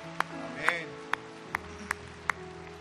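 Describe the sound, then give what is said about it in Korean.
Six sharp hand claps ring out at a steady, slightly uneven beat, each crisp and separate rather than blending into a roar, over a low, constant background hum; applause giving glory to God after a prayer at a church dawn prayer service. “우리의 기도를 들으신 하나님께 큰 박수로 영광을 돌리겠습니다”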